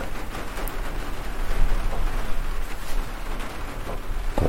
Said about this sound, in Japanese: 雨、雨強くなってきたな。めちゃくちゃもうすごいね、雷暴れ回ってますね。雷ってすごいよねなんか自然の迫力を感じますよね